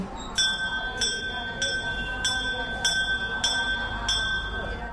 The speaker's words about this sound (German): Wer den Schrein betritt, schlägt zunächst eine Glocke.